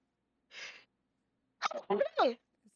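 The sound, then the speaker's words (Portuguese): A quick breathy inhale, then one explosive sneeze with a voiced, rasping release, loud, with a bit of speaking voice around it. “Saúde. Não sei o que dizer.”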